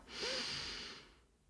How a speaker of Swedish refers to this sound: Så jag vill att du tar tummen och sätter på din, tar tummen på din högra hand. Sätt tummen på din högra näsborre. Andas in genom din vänstra näsborre.